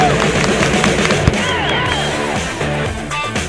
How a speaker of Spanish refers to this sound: Señores, señores, muy... ¡Aplausos! ¡Aplausos!